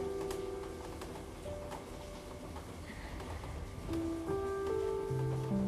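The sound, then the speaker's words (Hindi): Unseasonal rain falls steadily in Delhi as a soft, continuous hiss, fairly faint, with a low background hum and no voices. “मुझे उम्मीद है कि आप सबको ये बारिश की आवाज़ तो आ रही होगी बिन मौसम की बरसात है”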